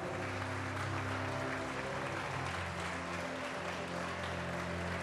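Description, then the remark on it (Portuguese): A church audience applauds the Lord during a morning service, a dense wash of many hands clapping at an even level for several seconds, with a low sustained hum of music or organ tones underneath. “Levante as suas mãos e aplauda o Senhor nesta manhã.”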